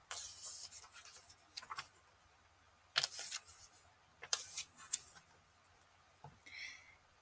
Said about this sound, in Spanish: Entonces, en este libro, ya les había contado, pues habla acerca del concepto de perdón y les voy a leer un poquito acerca de lo que de lo que leí. Aquí va un pequeño ASMR mientras paso las hojas.